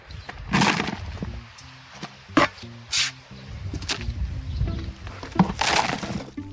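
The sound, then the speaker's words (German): Shovelfuls of wet horse manure being scooped and tipped in a garden, mixed with two or three buckets of water, with several sharp scraping and sloshing bursts at an uneven pace, over a steady low background hum. “Ein paar Schaufeln Pferdemist und zwei, drei Eimer Wasser.”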